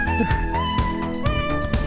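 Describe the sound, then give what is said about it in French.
Cat meows woven into a jazzy musical track, with steady tonal lines and regular percussive beats pulsing underneath, loud throughout with no one speaking. “C'est le jazz des chats.”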